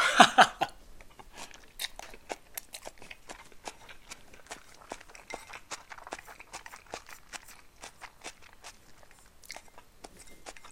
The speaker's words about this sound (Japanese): どうなのこのもやしの咀嚼音動画みたいになってると思うんだけどさ ASMR なってますか ならねえよっていう ならねえよって感じだな自分で言って自分で突っ込んだななるわけないだろっていうさゾワゾワとは縁がないよねこのこの食い物は。